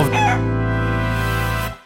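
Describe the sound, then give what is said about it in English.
A single loud rooster crow rings out, held steadily for nearly two seconds before cutting off, with a brief clucking flutter at the start and no talking. “Do a little chicken maneuver.”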